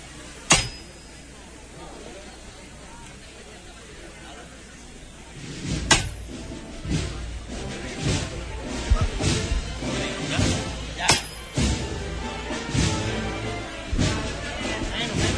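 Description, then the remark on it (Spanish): Three sharp, ringing knocks of the capataz's hammer on a procession float, spaced several seconds apart. The first sounds over near-quiet, and a murmuring crowd with voices and shuffling rises after the second. “Ahí está el golpe de martillo”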